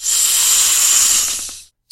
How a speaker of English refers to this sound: sound that came from the snake was not heard by Harry as words, only as pure fury